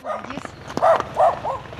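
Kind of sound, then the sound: animal, stray dogs barking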